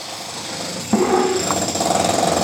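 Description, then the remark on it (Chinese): Electric drill noise from construction work done by workers at the back: a steady, rough grinding whir that jumps louder partway through and keeps a pulsing drone with a faint tonal hum underneath. No voices. “那个电钻是哪里的桥啊？”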